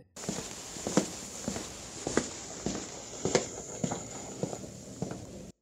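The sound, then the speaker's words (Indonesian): Heavy footsteps thud one after another in a steady, deliberate rhythm as someone approaches step by step, each impact sharp and distinct over a constant faint hiss, with no voices present. “tiba-tiba Matt mendengar hentakan langkah demi langkah yang mulai mendekatinya”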